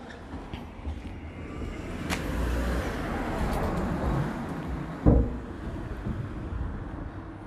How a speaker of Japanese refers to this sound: いやーねあ車が来そうだな